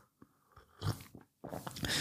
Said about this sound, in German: Hast vielleicht auch schon mal gemerkt, dass wenn du mal so einen Tee trinkst, wie jetzt, ich mach's mal. Oh, da ist noch heiß